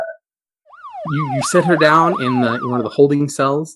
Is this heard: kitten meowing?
no